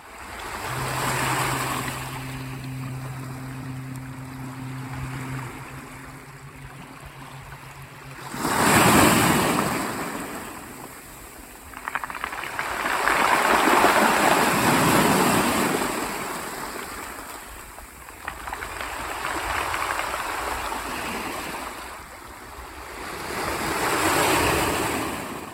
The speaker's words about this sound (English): the sounds of waves crashing over absurdly large grains of sand